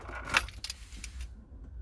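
Car keys jangle and clink for about a second as a key is put into a car's ignition, a few bright metallic rattles over a low rumbling background, then it settles into quiet hum.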